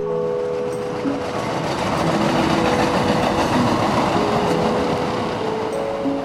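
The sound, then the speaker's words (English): An elevated subway train on an above-ground line rolls past overhead after letting off passengers at a stop. A loud, steady rumble of wheels on track carries thin metallic whines and squeals drifting through it. No voices. “Once I get off of my stop and I make my way down the tracks while the train I just got off passes over my head”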